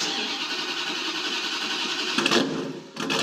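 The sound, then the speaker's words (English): The engine of a 1970 Dodge Hemi Challenger, the street-racing car nicknamed the Black Ghost from 1970s Detroit, runs with a loud, steady, buzzing roar, swells briefly past two seconds, then dips for a moment before roaring back. No one speaks. “This 1970 Dodge Hemi Challenger would appear only occasionally to race and then disappear into the night, hence its nickname.”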